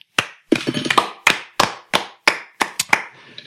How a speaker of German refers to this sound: Dafür einen Applaus.